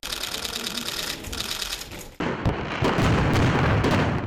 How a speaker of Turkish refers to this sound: Bakü'de gündüz düzenlenen zafer geçidi törenlerinin ardından akşam saatlerinde de kutlamalar devam etti. Karabağ zaferi havai fişek gösterileriyle kutlandı.